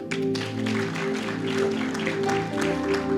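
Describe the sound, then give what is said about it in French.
An audience claps steadily in a dense, continuous patter of applause for a doctor being called up, with sustained organ-like musical tones humming underneath throughout. “Mais est-ce que tu peux venir Tu as ton micro on fait venir le médecin. Et on applaudit pour lui.”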